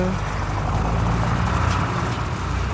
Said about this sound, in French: je laisse passer le bus. oui, hein. oui, non, prenez pas de risque que je vais faire. Attention, il est suivi par un, autre bus. Ils sont passés.